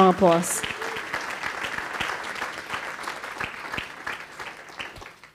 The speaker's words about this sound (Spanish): Ahora sí, Déle ese fuerte aplauso.